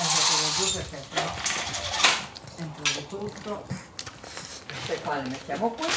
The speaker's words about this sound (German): Danach ziehe ich die Jalousien auf.